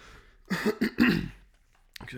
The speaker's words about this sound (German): Sorry für den Corona-Husten.